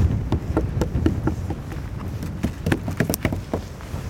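Sharp, hollow knocks on very hard ancient bog oak wood, about 7000 years old and dug up from the ground, a quick irregular series of a dozen or more raps, fairly loud, with faint outdoor background and no talking.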